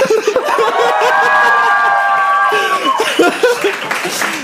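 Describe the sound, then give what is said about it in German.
A live audience at a community weekend in Hamburg claps and cheers loudly and steadily, with whoops and shouts rising above the dense patter of hands before fading slightly toward the end. “Wir haben uns, zu, wir, wir haben uns nämlich äh, zu unserer Applaus-App einen Verstärker gegönnt.”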